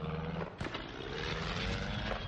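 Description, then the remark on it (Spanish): A small plane flying erratically roars loudly and unsteadily, broken early on by a sharp, crash-like impact as it hits one of the towers holding cable car cables, before the harsh droning continues. No voices. “La avioneta choca contra una de las torres que sujetan los cables de los teleféricos. Vuela dando bandazos”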